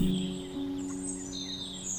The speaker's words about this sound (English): It was a beautiful day in the country. The sun was shining and the birds were singing.